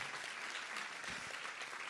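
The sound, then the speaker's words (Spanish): A church audience gives a round of applause to the Lord during a sermon, a steady, dense wash of clapping that holds at an even level throughout, with a faint murmur of voices briefly rising partway through. “Ahora sí, den un aplauso al Señor.”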